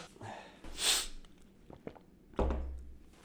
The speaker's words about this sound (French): Faut que je me mouche. Ah.